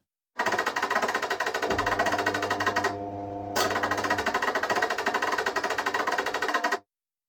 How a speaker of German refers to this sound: Daher habe ich ein Sample erstellt, das schließlich zum Kern der Rhythmen für diese Musik wurde. Ludwigs eingehende Waschmaschine.